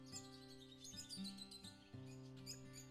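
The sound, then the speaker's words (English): Scattered small birds chirp and tweet at moderate volume in a forest among trees and leaves, their bright calls layered over a steady, sustained low tonal drone that hums beneath them throughout. “Just listen to sound of trees, leaves and birds.”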